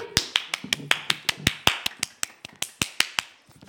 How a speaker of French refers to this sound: Vous êtes les deux grands vainqueurs de ce quiz. On peut les applaudir.